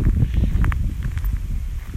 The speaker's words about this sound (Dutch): Ik loop nu door een soort van haag van riet. En daar hoor je echt het zuizen van de wind.